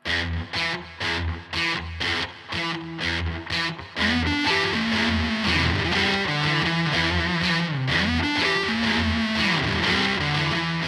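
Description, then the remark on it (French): A heavily distorted homemade electric guitar plays a choppy, rhythmic riff of short stabbed chords, then breaks into sustained, gritty bending notes that ring loudly and continuously with no voices. “Avec une petite manipulation, il rend le son distordu.”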